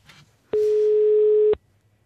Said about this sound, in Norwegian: Der ringer det, vet du. Å, det blir spennende.